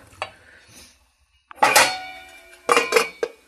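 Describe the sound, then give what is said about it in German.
Metal clatter of a lid being set onto a cooking pot on a gas stove turned up to a larger flame, a couple of bright rattling clanks with ringing overtones after a short quiet pause, no talking. “Ich nehme jetzt mal eine etwas größere Flamme, dann das ist ja beim Gas dann ein bisschen wieder so Deckel drauf”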